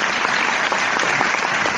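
An audience applauds steadily, a dense wash of many hands clapping at an even, sustained loudness with no voices standing out.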